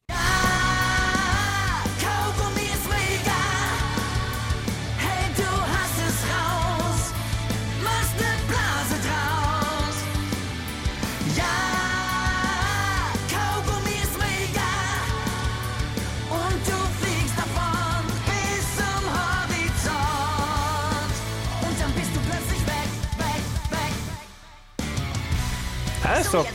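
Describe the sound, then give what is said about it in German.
A loud, driving children's rock song plays with full band backing, bass, drums and electric guitar, while voices shout and sing energetically over it, continuing steadily until a brief drop near the end. “ihr ganz großer Knaller ist, … heißt der Song. Und der klingt so.”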